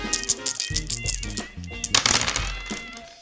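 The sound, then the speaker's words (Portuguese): Dice rattle and tumble in a quick burst of sharp clicks and clatters, loudest around the middle, over a steady low musical background. “Então puxe uma cadeira, se junte jogatina né? e que rolem os dados.”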